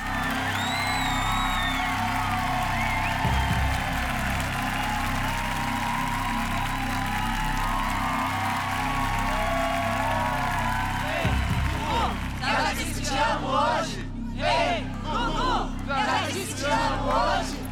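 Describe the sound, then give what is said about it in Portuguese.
A large audience on Brazilian Record TV's show Canta Comigo applauds Gugu Liberato for one of his last works, in a steady, dense roar; toward the end loud whoops and cheers break out in repeated bursts over the clapping. “E Gugu recebe os aplausos por um de seus últimos trabalhos.”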